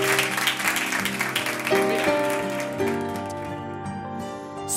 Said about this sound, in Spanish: Un aplauso, sí, sí, podéis aplaudir.